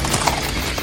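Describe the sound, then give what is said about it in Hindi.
The hooves of the jinn's white horses clip-clop in a quick, steady rhythm as they ride away from a lake, a few sharp hoofbeats over a dense, noisy background, moderately loud. “फिर जैसे ही जिन्नात वजू करके अपने सफेद घोड़ों पे सवार होकर वहां से निकले अंबर भी घोड़ों की टापों की आवाज का पीछा करता हुआ”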